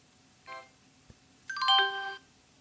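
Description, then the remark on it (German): A Windows system notification chime plays alone: a short harmonic tone, a click, then a brighter cascade of descending bell-like notes that ring for about half a second before stopping. “Oh, kennt ihr noch? Ja, Windows.”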